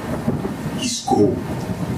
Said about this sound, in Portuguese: O trovão estremeceu a casa, que sacudiu o colchão,